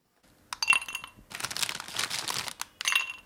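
A few sharp glassy clinks, then a steady hissing splash of liquid poured into a glass for about a second, ending with another ringing clink; no one speaks.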